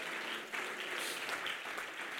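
A crowd claps their hands together in a dense, continuous wash of applause that holds steady at an even loudness for the whole stretch, with no clear pauses.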